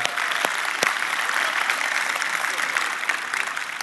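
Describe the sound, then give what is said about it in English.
A crowd applauds the band that led the evening, with dense overlapping hand claps at a consistent loudness for several seconds. A few sharper individual claps stand out near the start. “Hey, can we give up for the band one more time just leading us tonight?”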